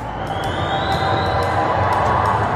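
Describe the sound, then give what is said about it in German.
A large crowd booing Prime Minister Johnson at the edge of a church service during the jubilee weekend: a dense, sustained roar of many voices without a break, with a faint thin whistle-like tone rising slowly in the background. “Am Rande eines Gottesdienstes wurde Johnson sogar ausgebuht.”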